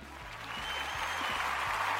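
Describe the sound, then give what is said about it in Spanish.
A steady wash of crowd applause for Mufasa of Disney's The Lion King, many hands clapping densely and building slightly in loudness, with a low, repeating musical bass line pulsing underneath. “Vamos a darle un aplauso a Mufasa nada más porque me cae bien.”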